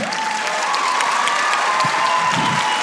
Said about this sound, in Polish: Więc powitajcie brawami.